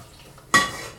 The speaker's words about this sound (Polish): Łapię garnek i całą wodę przez sito, tą wygotowaną, przelewam do garnka poniżej.